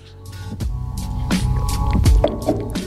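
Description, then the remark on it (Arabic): Someone drinks water, with wet gulping and liquid sloshing sounds in a quick irregular sequence over a low background hum, no talking. “بس لكن لازم نشرب ميه لان مش عارف جاتني شرقه دي, دي نروح نمسكها من بدري”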